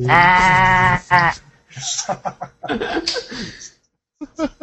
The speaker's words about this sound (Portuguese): A carneiro, olha lá. Tinha ovelha.